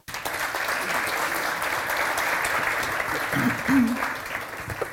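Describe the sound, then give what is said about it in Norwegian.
Steady audience applause for four panel guests fills the whole stretch, a dense wash of many hands clapping at an even level, with a brief murmur of voices rising near the end. “En varm applaus til alle fire.”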